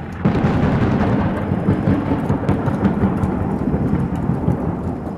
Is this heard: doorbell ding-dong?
no